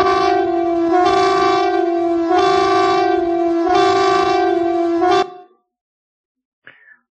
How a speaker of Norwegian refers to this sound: Denne gangen en annen varsling. Flyalarmen. Søk dekning. Og flyalarmen den vitner for mange om den forferdelige ondskapen som skjer akkurat nå i denne verden her.